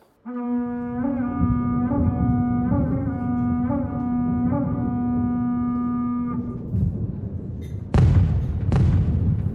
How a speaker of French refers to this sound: Des bruits terrifiants venant de l'extérieur arrivent à percer les immenses parois de pierre de la forteresse. Des bruits de flèches, des corps de chasse et des cris aigus se font entendre.